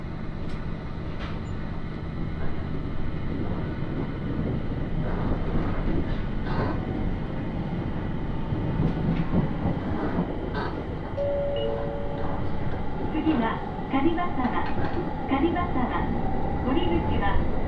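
A local Aoimori Railway train running from Aomori to Noheji rumbles steadily along the rails, a continuous low roar with rhythmic clatter and occasional squeals and tonal whines near the end, heard from inside the carriage.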